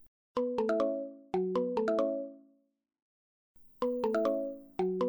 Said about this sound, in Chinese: 警长，你不先接电话？ 这不是我的铃声啊，是你们的吧？ 我们没带电话啊。诶，福奇，是从你口袋传出来的，该不会是丁丁博士给的那只手机在响吧？